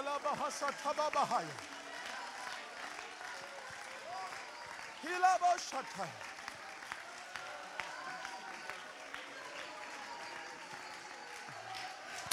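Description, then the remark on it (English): An audience claps steadily and densely throughout, with bursts of cheering and shouting voices rising over the applause near the start and again midway. “It's still, you haven't clapped like that in a while.”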